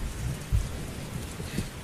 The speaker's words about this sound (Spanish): Es que... Mm, la tormenta es por mi culpa.